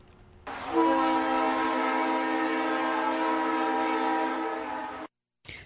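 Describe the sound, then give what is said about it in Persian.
An Ottawa LRT light rail train's horn sounds in one long, loud, steady blast lasting several seconds, with rumbling train noise underneath, then cuts off abruptly. “صدای آشنایی است صدایی است که چند وقتی است از سپتامبر پارسال مهمان شهر ما آتاوا شده”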